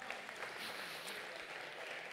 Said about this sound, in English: Now, that's a good spot to clap your hands and say, Amen. Come on, somebody.